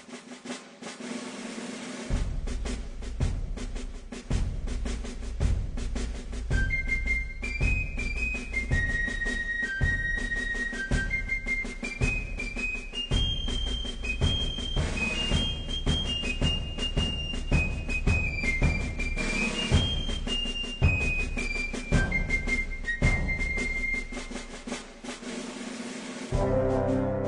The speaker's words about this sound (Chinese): 女仆的那个片尾曲，每一集的片尾曲都会吹的一个口哨，然后就开始切入这首曲子。